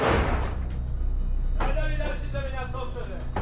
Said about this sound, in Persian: وارد یک پارکینگ میشه. درهای کامیون باز میشه.